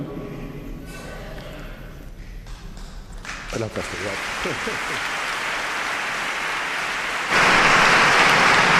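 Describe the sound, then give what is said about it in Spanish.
Audience applause for a newly appointed bishop, who is overcome with emotion, rises from a few scattered claps into a dense, steady roar of clapping that grows louder and fuller toward the end, with faint voices underneath at the start. “Vamos a ver si, si puede seguir, pero bueno, emotivo también el aplauso.”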